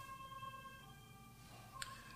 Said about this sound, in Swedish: det där ljudet var en ambulans, det var mm. inte till oss.